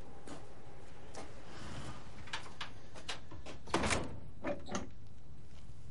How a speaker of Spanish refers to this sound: Mira tambaleante alrededor. Entra despacio en la casa y cierra la puerta.